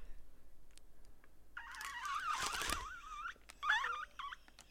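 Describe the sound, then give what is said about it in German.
A small toy horn (Tröte) is blown in two bursts to introduce a segment, giving a wobbly, warbling squeal that wavers in pitch like a squeaky bird call. The first burst is longer and the second short and choppy. “Einer muss es mit der Tröte mit einleitern und äh, einleitern.”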